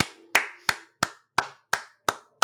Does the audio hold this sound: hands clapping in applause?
yes